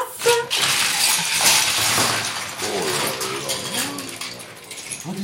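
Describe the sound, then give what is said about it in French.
A busy, rattling clatter of small hard plastic Playmobil toy figures tumbling onto a table, continuous for several seconds, with faint voices murmuring underneath toward the end. “pour bien visualiser l'espace et les différents protagonistes, j'ai ramené les Playmobil de ma fille”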